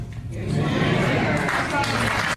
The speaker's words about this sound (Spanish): La gente le está aplaudiendo.